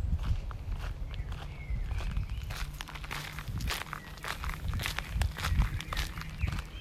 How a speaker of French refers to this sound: Et tu vas pouvoir t'imaginer marcher sur ce chemin de terre, entendre les pas.